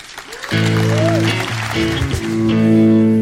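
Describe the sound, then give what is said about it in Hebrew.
An audience claps steadily for about three seconds while a loud, sustained musical chord rings out over the applause, starting abruptly after a brief quieter moment. The applause welcomes the next speaker at a talk event. “קבלו מלאות כפיים את הדובר הבא”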